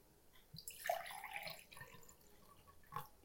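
Close, quiet liquid sounds of someone sipping water from a glass, with a soft wet gulp and a small clink or drip near the end; no talking.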